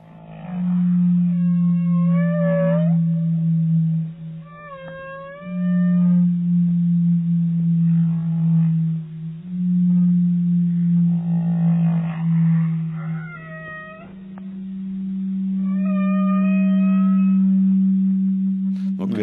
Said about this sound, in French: Par exemple, un mélange de bruits, c'est un sonar militaire de très basse fréquence avec un son de baleine mélangé.